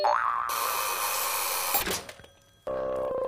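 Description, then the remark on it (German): The cartoonish Hört aufs Wort baking machine whirs to life at its first run after its button is pressed, with a wobbly boing-like tone, then a bright sustained electronic hum, a brief clattering stop, and a steady mechanical buzz resuming. No talking. “Aha, das ist jetzt die Premiere für die Hört aufs Wort Backmaschine.”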